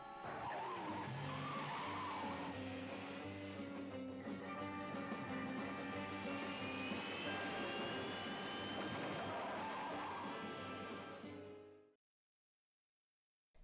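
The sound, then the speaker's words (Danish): A turbine-powered library car with atomic batteries roars loudly with a rising jet-like whine and rumbling engine, sustained for about twelve seconds as it speeds away, then cuts off abruptly into silence. “Atombatterierne er tændt, turbinerne er sat til fart.”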